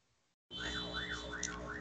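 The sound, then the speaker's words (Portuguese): An ambulance siren, from an ambulance passing by, blares in suddenly after a brief quiet moment, its loud wavering tone rising and falling in quick repeated sweeps over a rumbling background. “Não, tá passando uma ambulância que fala aí, tá depois eu falo.”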